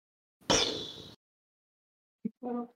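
A heavy door swings shut with a loud, rumbling slam, then after a pause comes a brief knock and a short, tonal creak, with no voices.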